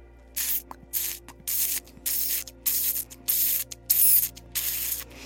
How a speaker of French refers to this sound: Et je te laisse écouter s'éloigner les pas